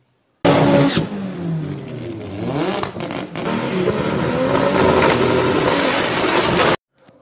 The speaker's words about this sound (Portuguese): Os vizinhos contam que uma noite vieram muitos carros e cercaram a casa.